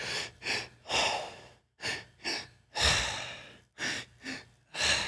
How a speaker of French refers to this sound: C'est que tu respires par ton, par ton ventre, après ça par ton chest. et mm-hmm. le plus vite que tu peux, le plus fort que tu peux. Après ça, you, you just let go. And you do it. Tu, le fais le plus vite que. Dans le fond, tu hyperventilates.